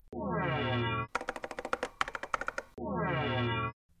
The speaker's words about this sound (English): We're trying to use the internet. All right, just gonna type into this search bar.